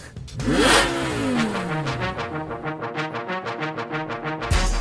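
A car engine cranks and catches, then revs up loudly before settling into a steady, pulsing idle, with no one talking.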